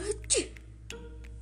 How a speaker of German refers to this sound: Und wenn ihr euch fragt, wieso ich nun niese, ich war erkältet.